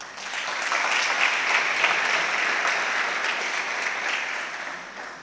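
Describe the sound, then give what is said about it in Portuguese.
A crowd applauds a man steadily for about five seconds, a dense, even wash of many hands clapping at once, fairly loud and sustained before tapering slightly at the end, with no talking over it. “Dá um aplauso a ele.”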